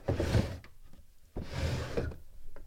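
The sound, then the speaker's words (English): A drawer of an old, dented desk with flaking paint, holding radio equipment, slides open with a rolling rumble, pauses briefly, then slides shut with another rumble ending in a soft thunk; clear, with no talking. “I just opened a drawer and you listened to it.”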